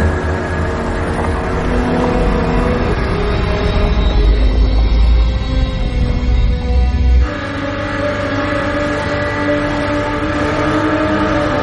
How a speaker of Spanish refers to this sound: Poco después, montados en una lancha, navegan río abajo en busca de otra zona.